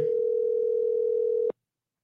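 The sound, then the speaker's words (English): A single steady telephone ringing tone holds one clear pitch for about a second and a half, then cuts off abruptly, leaving silence with no answer and no voices. “Answer the phone, Nick. Be a man about it. Come on, Nick. Pick up the phone, son.”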